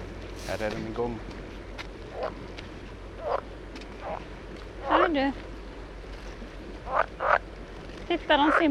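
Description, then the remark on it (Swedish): Two pool frogs croak in short, nasal bursts at a pond by the sea on Örskär, some calls doubled, repeating irregularly every second or so over a steady low outdoor background. “Gölgrodorna på Örskär”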